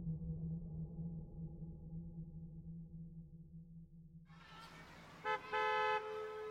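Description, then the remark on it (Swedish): A car engine idles with a low steady hum in a school parking lot, then a burst of noise gives way to two car horn honks from a mother, a short toot followed by a longer, louder blast. “Mamma tutar på parkeringen och jag springer fram och sätter mig i framsätet.”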